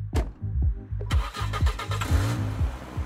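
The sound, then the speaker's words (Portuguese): A black car's engine cranks with a few rhythmic low pulses, then catches and runs with a rough, rising rumble as it pulls out of a nightclub parking lot, loud, with no voices. “Ela anda em direção a um carro preto que sai do estacionamento.”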